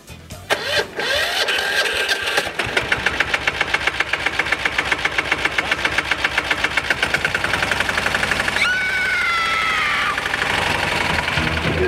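A small cultivator engine sputters to life, then runs with a loud, steady rapid chugging, a whining tone rising briefly near the end. No one speaks.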